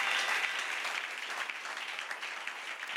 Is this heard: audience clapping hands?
yes